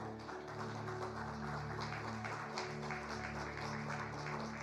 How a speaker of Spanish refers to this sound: Dele un aplauso fuerte al Rey de la Gloria.